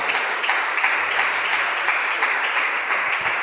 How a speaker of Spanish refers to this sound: Y si usted lo cree, déle ese aplauso bien fuerte a él.